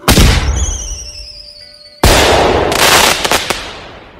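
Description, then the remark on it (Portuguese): Fireworks explode: a loud bang, then a high whistling streak fading off, another sharp boom, and a rapid series of crackling bursts toward the end. This is a fireworks display at 10 pm at a fair set up in the square in front of the Nossa Senhora do Pilar church. “Os pistoleiros aproveitaram o momento da queima de fogos e se aproximaram de repente.”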